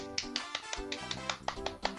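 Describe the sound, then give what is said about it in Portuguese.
Quick, steady hand clapping, about eleven sharp claps in two seconds at an even rhythm, over a faint sustained tonal background. “Palmas.”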